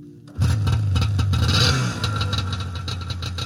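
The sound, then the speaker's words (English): A snowmobile with no plastic covering and its engine exposed kicks in abruptly and revs loudly, its buzzing drone swelling for a moment before easing back to a steady, rough running rumble. “There was definitely this huge sense of freedom that I got riding the snowmobile.”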